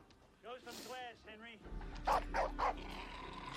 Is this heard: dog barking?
yes